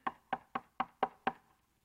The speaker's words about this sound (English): then he pointed to, to a young lady said, then she knocked on my door.